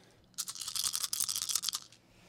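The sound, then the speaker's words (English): Dice rattling and tumbling across a table, a dense burst of quick, bright clicks lasting about a second and a half before settling, with no voices. “that dice ASMR.”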